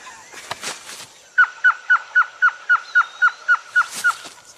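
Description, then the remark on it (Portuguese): A person imitates a blue-crowned trogon call: a steady run of about a dozen short, evenly spaced hooting notes, loud, after a few breathy bursts. “Surucuá de coroa azul.”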